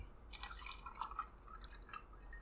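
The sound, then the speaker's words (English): Butterscotch-flavored Old Smoky moonshine is poured into a glass in a short, quiet stream, with soft gurgles and a few bright drips over a low background hum. No one speaks. “So let me go ahead and uh, go ahead and pour this real quick.”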